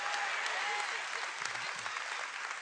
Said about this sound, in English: You ought to clap for me. I don't sing very often, folks.